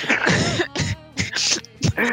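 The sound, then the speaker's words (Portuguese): A person coughs and clears their throat several times in quick succession, fairly loud, with short raspy bursts separated by brief pauses and no speech. “até, até tossi.”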